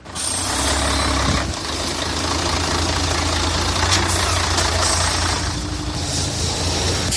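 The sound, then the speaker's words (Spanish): A large water tanker truck carrying 18,000 litres of water from the Puente Nuevo reservoir, supplying people because tap water cannot be used, idles with a steady, loud low-pitched engine rumble, a brief hiss of air at the start and faint mechanical clatter running throughout; no one speaks. “Fíjate, lo que he vivido esta mañana delante de ese camión cisterna ha sido como un viaje en el tiempo, como volver a ese momento en el que no había agua corriente en las casas.”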